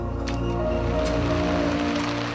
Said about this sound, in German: Hundewetter. Heute Morgen werden wir von einem ordentlichen Regenschauer begrüßt.